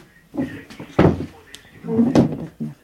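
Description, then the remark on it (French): A folding cinema seat bangs shut with two loud wooden thumps about a second apart, surrounded by smaller creaks and clatters, with faint voices murmuring underneath. “c'est un siège de cinéma, Ah ouais.”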